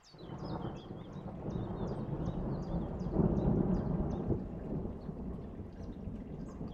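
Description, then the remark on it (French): An approaching thunderstorm growing stronger as the wind blows harder: deep, rolling thunder rumbles continuously over a steady hiss of rain, swelling louder midway, while faint, evenly repeating high chirps sound in the background. “Aussi, alors que vous sentez l'orage approcher et devenir plus fort, le vent souffler de plus en plus fort, vous restez assis dans la prairie, complètement imperturbable.”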